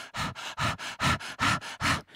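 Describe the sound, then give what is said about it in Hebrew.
Rapid, forceful 'breath of fire' breaths pump in a steady rhythm, roughly four per second, about nine sharp huffs in a row. The breathing is fairly loud, with no talking. “ומתישהו זה באמת נשמע כמו גניחות, אבל זה רק באמת תנועה של אנרגיה, אה, זה עוזר, גם נשימות אש שהן יותר...”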